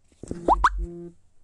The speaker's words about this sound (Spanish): No sé de Mario Bros. Sacando monedas o qué. Parece, ¿no?